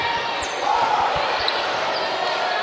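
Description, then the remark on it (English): A gym crowd at a basketball game lets out a sustained, loud wash of disapproving murmurs and shouts at a foul called on Culleoka, with a few low thumps, like a ball bouncing, underneath. “Some people didn't agree with that one in the crowd, as you can probably hear. Not happy about that call.”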